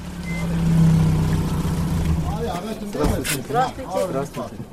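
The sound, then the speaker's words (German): A truck engine rumbles as the truck is moved 100 meters and parked in the container village of Gümri (Gyumri), with a reversing alarm beeping faintly, before people start talking over the continuing vehicle noise. “haben den LKW im Containerdorf von Gümri inzwischen 100 Meter weiter abgestellt und laden 15 Säcke Brennholz im Garten”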